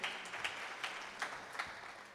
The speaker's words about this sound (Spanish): Si le van a dar un aplauso, dénselo al Señor. Los que entendieron la revelación de lo que acabo de decir.